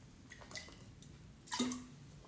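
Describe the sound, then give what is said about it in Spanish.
Quiet sounds of someone drinking water: a few soft wet sips and drips, then a louder swallow with a brief gulping tone, with no talking. “voy a tomar agua porque este tema me apasiona y ya me dio sed.”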